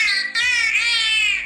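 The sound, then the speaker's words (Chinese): A high, squeaky, nasal voice-like sound in three connected bursts, strongly harmonic and loud throughout, resembling a dolphin trying to mimic a human saying 'one two three'. “这就是海豚当时发出的声 音。”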